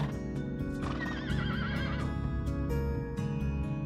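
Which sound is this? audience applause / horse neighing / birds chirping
horse neighing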